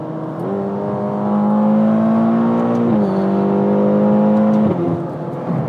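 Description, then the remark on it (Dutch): A loud turbocharged 3.9-litre V8 car engine of 610 hp drones steadily, then downshifts with a quick shift in pitch and pulls hard, climbing again before another brief change near the end. No voices are heard. “Een V8 met turbo's die lagere uitstoot heeft. En qua prestaties, ik zal even een beetje terugschakelen.”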